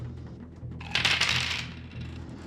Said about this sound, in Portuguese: Então joga um dado.